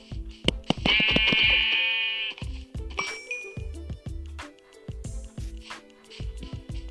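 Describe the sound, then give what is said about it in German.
A sheep bleats with a wavering, drawn-out call, followed by a shorter second bleat, amid a steady run of sharp clicking and tapping sounds. “Jetzt finde ich viele Schafe”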